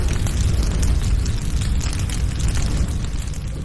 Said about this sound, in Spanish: en donde minutos después un fuerte olor a azufre desencadenó en una gran explosión que terminó por incendiar todo el casino.